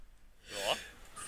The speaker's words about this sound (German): Ja. Gesundheit.